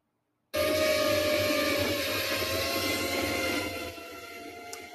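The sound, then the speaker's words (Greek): Drone propellers buzz loudly and continuously, a harsh whirring drone with a steady pitch that starts abruptly and holds for several seconds, easing slightly toward the end, from a drone carrying a mounted Pixel 6 Pro phone recording video. No one speaks. “Ο σπαστικό ήχο που ακούτε είναι από του έλικε του drone, καταλαβαίνετε.”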